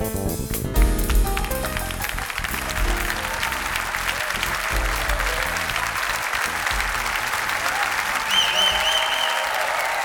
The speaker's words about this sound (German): Manchmal kann man schon am Applaus vor dem eigentlichen Konzert hören, wie der Abend wird. Das Pablo Held Trio trifft die Saxophonistin Melissa Aldana. Darauf sind an diesem 14. August offenbar viele Leute sehr gespannt.